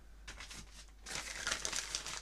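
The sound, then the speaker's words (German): Paper rustles and crinkles, a brief soft handling followed by a louder, sustained crumpling with sharp crackles, with no voices. “das ist Papier”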